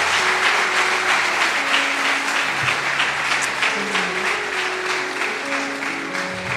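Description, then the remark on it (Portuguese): Sustained applause for Jesus from a large church audience, a dense steady wash of many hands clapping at once, loud throughout, with a low hum and faint tonal sounds underneath. “Você pode dar uma salva de palmas a Jesus por isso?”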